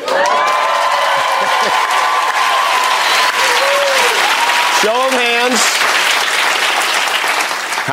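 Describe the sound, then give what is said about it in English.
A packed studio audience of fans applauds loudly and steadily, with cheers and whoops rising over the dense clapping throughout, sustained, as the hosts first step out for the opening monologue of Jimmy Fallon's show. “here is just kind of their opening monologue when they first step out, and the fans the fans were blown away.”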